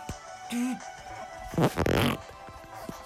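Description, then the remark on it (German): A raspy, fart-like video game creature cry in two quick, loud bursts, preceded by a brief electronic chime, against a quiet background with no talking. “Ein Relaxo das hört sich an wie ein Furz.”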